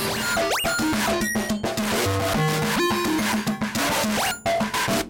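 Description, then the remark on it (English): A busy, dry electronic signal with a short, muted spring reverb tail, the springs manually held with fingers so the boingy echo stays small but not fully killed. Rising pitch sweeps and dense tones play continuously at steady volume. “So you hear just a dry signal and like a, a little bit of reverb signal just dampened through your fingers.”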